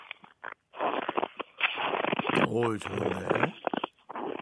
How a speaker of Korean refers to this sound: 제가 있는 지금 이곳은 핀란드에서도 최북단에 위치한 이발로입니다. 오전 10시 이곳의 날씨는 현재 영하 12도인데요. 마치 눈으로 뒤덮인 겨울왕국 같은 느낌입니다. 기본 50cm 이상으로 두툼하게 눈이 쌓여 있는데요. 현지에서 보내드리는 이발로의 눈소리 새해를 맞아 한번 들어보시죠.